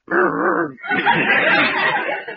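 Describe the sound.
A man's voice makes a rough, throaty dog-like growl, starting with a short wavering vocal tone and then breaking into a longer raspy, gritty rumble, fairly loud.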